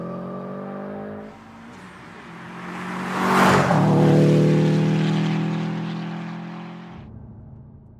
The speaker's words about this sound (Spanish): Salió de la casa, subió a su auto, lo encendió y aceleró a fondo.